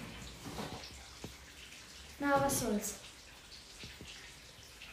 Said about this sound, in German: Was plätschert hier so? Ach so, ja. Hier Regenwinde.